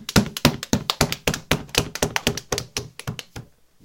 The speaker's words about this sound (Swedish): Den var en lång applåd.